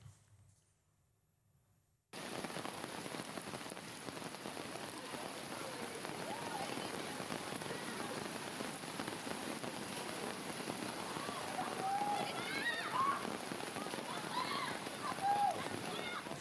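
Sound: heavy rain pouring down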